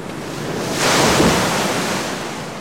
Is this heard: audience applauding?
no